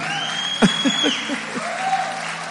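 An audience breaks into steady applause, a dense wash of many hands clapping at even loudness throughout, with a few sharper claps and faint cheering mixed in.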